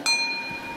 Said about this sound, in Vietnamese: bây giờ mình biết được đây là cái chuông mà mua ở ấn độ nè